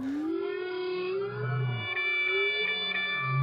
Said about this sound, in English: So, all the humpback whales in any one ocean are singing one song and then they change it altogether.